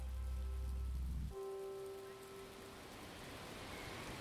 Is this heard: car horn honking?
no